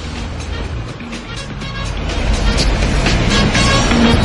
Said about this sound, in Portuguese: Renata tá no mototáxi.